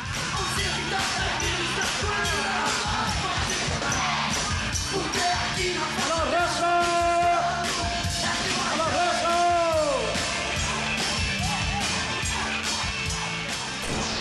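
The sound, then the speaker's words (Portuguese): A large studio audience sings along loudly in unison, many voices blending into a dense, sustained chorus with scattered shouts and whoops rising above it. “A plateia cantava e a gente ficava quieto e o Chacrinha ficava buzinando”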